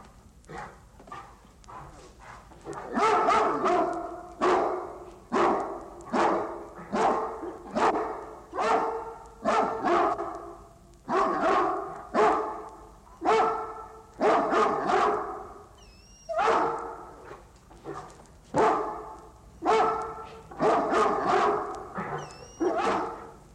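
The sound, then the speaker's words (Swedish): Dogs bark loudly and repeatedly in a steady, rhythmic series of sharp barks, continuous for the whole stretch, with no one talking, played from a sound-effects vinyl record of barking dogs. “Alltså en ljudeffektskiva med bara skällande hundar.”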